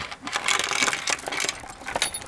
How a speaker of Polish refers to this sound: Zaprzęgam do woza teraz konia. To paski na hołoble są.